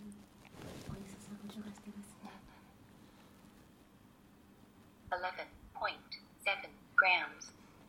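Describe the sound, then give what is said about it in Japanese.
A faint hum and soft rustling give way to a small, tinny electronic voice from a talking kitchen scale, announcing a weight reading of 11 grams as hot water is poured, in a few clipped syllables near the end. “今ね、11グラムって言いましたけど、うん、11グラムお湯が入りましたね。”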